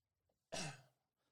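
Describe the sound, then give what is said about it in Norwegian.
A single sharp cough bursts out abruptly and fades over about half a second, with quiet around it and no talking. “Måtte hoste litt.”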